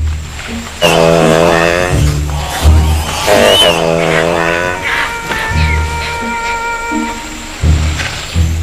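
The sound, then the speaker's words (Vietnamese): A male proboscis monkey in Borneo gives loud, nasal honking calls, amplified by echo chambers in its long nose, a series of drawn-out harmonic honks with low rumbling background noise between them. “Chúng cũng có các khoang tiếng vọng giúp khuếch đại tiếng gọi của con đực, đe dọa những đối thủ và gây ấn tượng với khỉ cái.”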